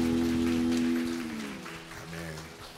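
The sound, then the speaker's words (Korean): Steady crackling applause from a group after a children's worship song in a church service, with a sustained low keyboard chord ringing underneath for the first second before fading to softer notes as the clapping continues. “노래 행복하게 박수 올려드립니다.”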